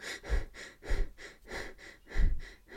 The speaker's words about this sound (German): Ähm, wenn wir zum Beispiel flach und schneller schnaufen, so,